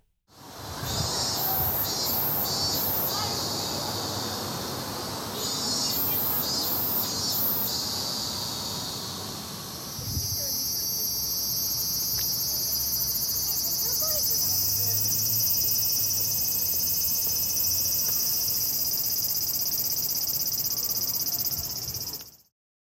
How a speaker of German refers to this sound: Auch Zikaden sind überall. Vor unserem Haus klingt derzeit übrigens so.